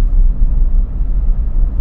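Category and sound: vehicle, electric car interior noise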